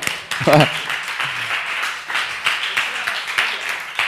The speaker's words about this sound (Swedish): kom, kom, kom. Ge dem en applåd.